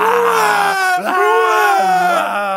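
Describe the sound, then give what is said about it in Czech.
A person vocally imitates a hungry Dutch baby's wailing cry, a loud, sustained, wavering howl with a brief catch in the middle, continuous for a few seconds. “You know what Dutch baby does? Víte, co holandský děti dělají, když mají hlad?”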